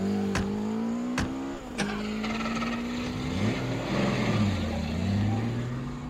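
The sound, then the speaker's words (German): A few sharp knocks, then a car engine revs up and roars away in pursuit of a motorcycle with a sidecar, its pitch climbing and dipping as it accelerates hard, loud throughout. “Schnell zum Auto!”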